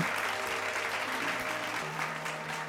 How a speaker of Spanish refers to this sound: Un aplauso por favor para los que votaron por Estados Unidos porque la pegaron bien a fuego.